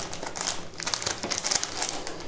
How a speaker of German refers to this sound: Ja, ah, hört ihr, das ist mir. Mia frisst. Das ist doch schön. herrlich, dass sie frisst.